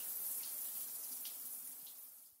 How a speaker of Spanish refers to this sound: se olvidó de llenar la regadera y ni siquiera se dio cuenta de que igual salía agua y que las flores bebían contentas, muy contentas.